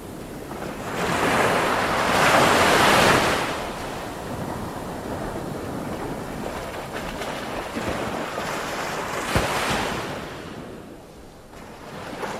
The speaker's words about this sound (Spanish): ¿Escuchas el mar? ¿Oyes las olas?